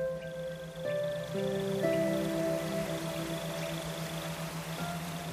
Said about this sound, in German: Schon von weitem hört ihr das Rauschen des fallenden Wassers.